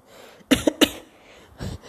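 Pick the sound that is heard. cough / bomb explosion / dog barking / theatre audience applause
cough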